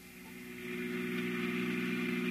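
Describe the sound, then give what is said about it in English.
A car engine drones steadily as the vehicle drives along a single-lane dirt road past a cemetery on a Sunday evening, the hum swelling slightly after the first moment and then holding even, with no voices. “It was Sunday, and in order to avoid traffic, I took the Old Mill Road, a single lane dirt affair that runs past the Gowanda Cemetery.”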